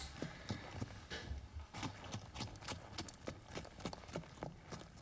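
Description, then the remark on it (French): Horse hooves clip-clop in a steady walking rhythm as riders set off again on horseback, a long run of sharp knocks on hard ground, with no one speaking. “Au bout d'une heure de pause, nous repartons à cheval.”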